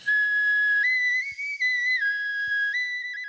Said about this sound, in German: Die Geflügelknochenflöte in der Würzburger Studiensammlung ist nicht aus der Steinzeit, sondern ein Mitbringsel aus dem Balkanurlaub.